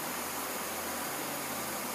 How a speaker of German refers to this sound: Das Rauschen war äh, die Spülung von der Druckkammer oben, weil unser Tauchgang geht in der Regel 49 Minuten, also mit Abtauchen und wieder auftauchen.